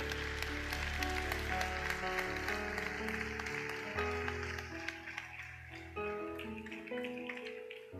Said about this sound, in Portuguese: Se você quer dar uma salva de palmas ao Senhor Jesus.